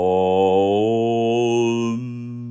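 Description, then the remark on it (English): A single low voice chants a long, steady Om, holding one pitch for a few seconds before the tone closes into a softer humming "mm" at the end. “And it's pronounced Om.”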